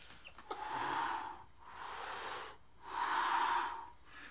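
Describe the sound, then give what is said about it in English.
Three slow, raspy heavy breaths drawn right up against the microphone, each lasting about a second with short pauses between, loud and close with a wheezy, hissing edge and no talking. “You sound like Darth Vader”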